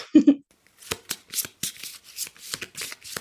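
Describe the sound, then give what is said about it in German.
Tarot cards are shuffled and handled, a soft flurry of quick papery riffles and slaps that patter irregularly after two brief low thumps at the start. “dann drehe ich gleich die erste Karte um.”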